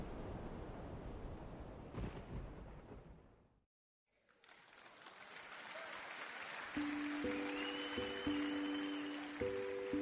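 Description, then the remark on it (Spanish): Sea waves roar against the shore in a broad, hissing wash, cut by a moment of silence before the surf swells back, with steady high electronic tones joining in near the end. “A la mayoría nos gusta oír el mar, pero por desgracia el mar no suena igual para todos.”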